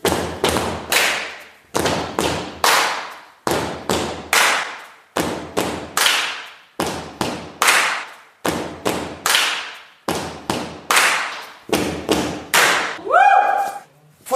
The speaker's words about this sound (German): Typisch beim Line-Dance ist das Tanzen in einer Reihe und Schritte, bei denen die Schuhsohle auch mal ordentlich aufs Parkett knallt.